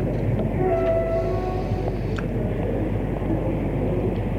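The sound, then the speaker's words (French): A train travelling towards Albertville, heard from a first-class compartment, moving along with a steady, heavy rumble. Faint high-pitched tones whine briefly early on, and a short clank sounds midway. No one speaks. “Elle monte dans un wagon de première classe.”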